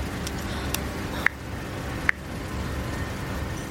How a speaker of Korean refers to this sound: 그때 지는 퇴근길 버스 안에 있었다.